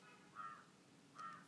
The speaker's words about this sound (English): And then I think you can hear the birds outside, I'm not sure.